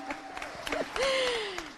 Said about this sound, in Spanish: No, oigan, eh, bueno, un aplauso a las actrices, por favor.